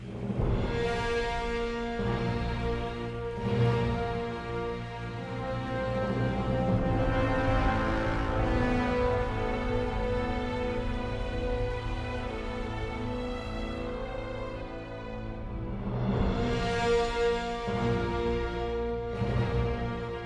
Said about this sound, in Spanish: una de las canciones eh, que más vamos a recordar de este 2018, Infinity War